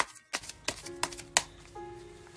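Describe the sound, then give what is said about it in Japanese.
Tarot cards being shuffled and drawn for a reading, turning up the Knight of Pentacles reversed: a short series of crisp papery snaps and flicks, about four distinct clicks spaced irregularly over a faint steady background hum. “タロットひくよー”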